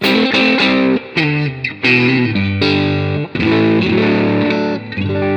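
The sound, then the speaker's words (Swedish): A Stratocaster electric guitar played on its middle pickup, with distorted chords struck in a loose, uneven rhythm; each chord rings out loud and sustained before the next. No one talks. “Nu mittläge ska vara.”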